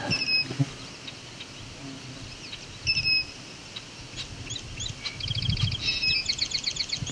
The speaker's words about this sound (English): that's a song sparrow song. I'm gonna get a little closer to that song sparrow. We'll get that call nice and clear. That song.